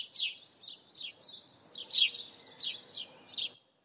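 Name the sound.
house sparrows chirping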